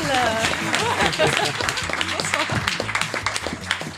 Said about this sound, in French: Je vous demande un tonnerre d'applaudissements pour Cathy Melon.